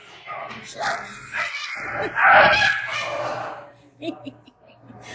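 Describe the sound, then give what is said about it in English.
A small wire-haired dachshund that has run out and got free yelps and barks excitedly amid a noisy scramble, with raised, agitated voices; the commotion peaks midway, then settles into scattered yaps and movement. “The wee, the wee uh, wire-haired dachshund ran out and got, got free.”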